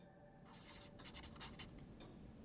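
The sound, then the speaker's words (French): A pen scratches and squeaks across a large paper pad in short, quick strokes, fairly quiet, with no voices around it, as an organizational chart is drawn on it at the end of a meeting room table in Milan in 1990. “se tient devant un grand bloc de papier au bout de la table de la salle de réunion. Il y dessine le futur organigramme de Gucci pour un représentant d'InvestCorp.”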